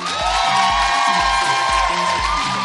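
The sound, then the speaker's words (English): A loud audience cheers and whoops continuously after someone shares a testimony, with a steady rhythmic thumping beneath, like clapping or stomping in time, filling the whole short stretch without any talking. “I don't think you understand the gravity of the testimony you, because you weren't clapping loud enough.”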